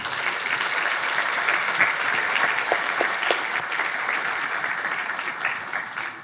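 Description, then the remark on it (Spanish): A church audience claps loudly and steadily in applause to the Lord, a dense wash of many hands sustained for about six seconds before easing off slightly at the end, with no voices standing out. “Hermanos, démosle fuerte aplauso al Señor.”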